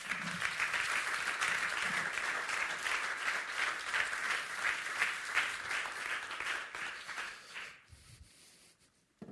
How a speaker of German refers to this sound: Euer Applaus.